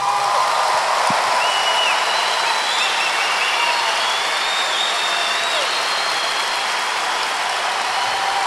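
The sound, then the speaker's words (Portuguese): A crowd claps steadily in applause for Jesus, a dense wash of applause that holds at an even, fairly loud level throughout, with a few faint whistles or cheers rising above it and no speech. “É, gostaria mais uma vez que vocês aplaudissem Jesus, por favor.”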